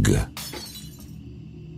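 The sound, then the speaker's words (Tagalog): A sudden loud crash as a flying makeup container shatters, followed by a second sharp crack and a bright scatter of fragments that rings and fades away within about a second, over a low steady hum. “Ihahambalos na sana niya ang ulo ko sa mesa nang may isang bagay na tumilapon mula sa kung saan at nabasag.”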